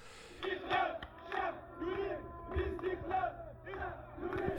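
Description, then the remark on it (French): A large crowd shouts a rhythmic chant in repeated bursts about once a second, many voices in unison, loud and sustained like a street protest. “Mais l'actualité de la démocratie, ce sont aussi des cris de désespoir, de rage, d'espoir mêlé qu'il faut entendre”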